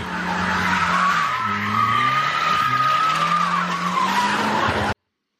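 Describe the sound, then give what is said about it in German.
A car drifts with a long, continuous tire squeal over a revving engine, the shrill skid wavering in pitch for about five seconds before cutting off abruptly. “Ein eigenes Auto ist für die Jungs identitätsstiftend und Driften ein Lebensgefühl.”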